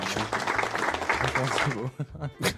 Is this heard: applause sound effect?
yes